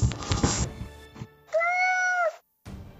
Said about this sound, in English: A cat hologram. What's its name? It's cute.